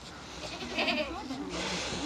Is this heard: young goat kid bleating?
yes